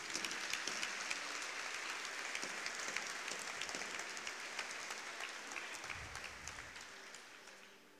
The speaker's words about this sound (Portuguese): Aplauda Jesus mais uma vez.